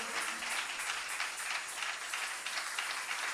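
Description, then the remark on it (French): A crowd applauding steadily in acclamation of Almighty God, dense overlapping claps forming a continuous, bright wash of sound with no voices breaking through, holding at an even level for a few seconds. “Est-ce qu'on peut, acclamer Dieu Tout-Puissant très fort Donne à Dieu cette acclamation de reconnaissance de son amour.”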